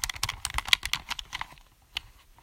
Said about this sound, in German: Leute, OMG, wir spielen heute mit einem Controller, wie ihr es hier ähm, schon hört.